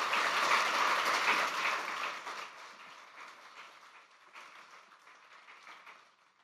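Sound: audience applause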